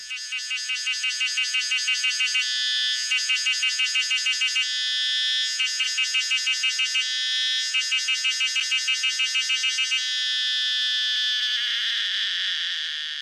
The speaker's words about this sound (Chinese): 有人说呢，是因为它的叫声啊，听起来很像在喊着痒痒痒痒痒痒痒，好痒哦，一副很想要瘙痒的样子，所以呢才叫做骚蝉。那么我们就来听听看台湾骚蝉的声音吧。